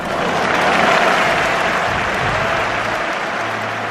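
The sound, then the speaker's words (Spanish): A large bullring crowd bursts into a loud, sustained ovation, a dense steady roar of clapping that holds evenly for several seconds with a faint low murmur underneath. “Y aquí viene la fuerte ovación de Joselito para Joselito”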